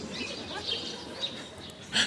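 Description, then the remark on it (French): Birds chirp outdoors in short, scattered high calls over a soft background hush, with a brighter burst of chirping near the end. Fairly quiet. “Avec tous ces oiseaux à la con, ils trouvent ça calme.”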